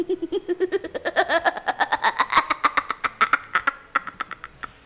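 A sinister, satanic evil laugh sound effect: a rapid, steady string of harsh 'ha' bursts whose pitch climbs higher and higher over about five seconds, prominent with no talking over it.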